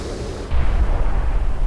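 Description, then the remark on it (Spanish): A deep, roaring tsunami rumble swells suddenly after a brief hiss and holds steady, loud and heavy in the low end, like a massive wave surging in. No voices are present. “¿Lo reconocen? Es el sonido del tsunami.”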